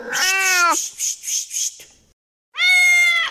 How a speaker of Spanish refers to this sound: ¡Ah! Aquí viene un gato. Gato. Gatito.